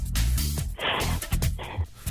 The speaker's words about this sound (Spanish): Estás respirando profundamente.